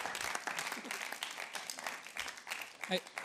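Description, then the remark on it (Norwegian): An audience breaks into sustained applause for a woman after a Bible reading, a dense, even wash of many hands clapping for a few seconds with a slight swell near the end and no one speaking over it. “Gi henne en applaus.”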